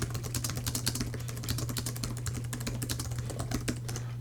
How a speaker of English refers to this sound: Now, I have typed this in contracted braille and if I switch over to standard keyboard then I can type another little message.